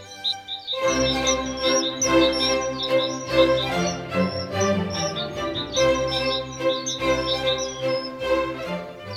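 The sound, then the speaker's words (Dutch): Birds of many species chirp and sing in quick, bright bursts throughout, layered over a dense, steady musical backdrop with rhythmic low pulses, in the Vogelzangbeek, a brook area of marsh, woods, ponds, meadows and pollard willows. No one speaks. “Er wonen hier ontzettend veel soorten vogels door de afwisseling van lapjes moeras, bos waterpoelen, weides en knotwilgen.”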